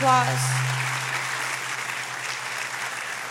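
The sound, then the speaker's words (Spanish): An audience at a bilingual Spanish-English service gives the Lord a round of applause, a steady, dense clapping that fills the whole clip, opening with a brief tonal hum that quickly fades beneath the clapping. “Go ahead and give the Lord a round of applause.”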